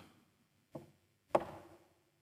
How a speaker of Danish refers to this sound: Han satte sig ved pejsen for at læse i avisen, og jeg tror faktisk, han var lige ved at falde i søvn, da han hørte den bankende lyd.